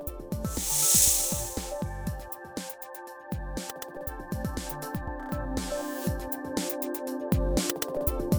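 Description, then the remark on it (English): A copperhead snake hisses in one short, breathy burst near the start, set against steady background music that carries on alone afterward. “The copperhead just hisses.”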